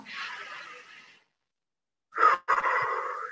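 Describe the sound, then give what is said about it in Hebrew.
A deep, airy breath drawn in during a guided deep-breathing exercise, then a pause of silence before a second, stronger rush of breath with a small click at its start. “כל אחת וכל אחד, איפה שהמולקולה הזאת כבר השתנתה, אתם לוקחים נשימה עמוקה לשם”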